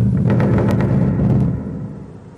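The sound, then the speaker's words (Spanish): Several heavy, booming knocks on a door in the sky come in a rapid cluster over a deep rumble, then the sound fades away. No one speaks. “Hemos visto una puerta y hemos llamado.”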